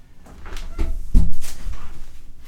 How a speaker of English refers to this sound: Luigi was scratching in his bowl because he had run out of water. Oh! it just sounded so much like typing. He's Ugh, welcome to the 21st century. Clawing at a, a metal bowl to indicate that he wanted it to be filled. Filled with a liquid.